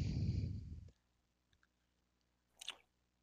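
A close, loud chomp of food with a wet, crunchy squish, followed by faint mouth clicks and one brief, crisp squelch a moment later. Nobody speaks.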